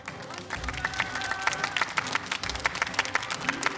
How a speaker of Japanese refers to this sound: ありがとうございます、えー、本当に拍手で迎えていただきました